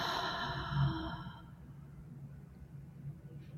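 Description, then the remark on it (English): A single long, slow, breathy exhale during a guided breathing exercise rushes out, then softens and trails off over a couple of seconds into quiet room tone. “Long, slow exhale.”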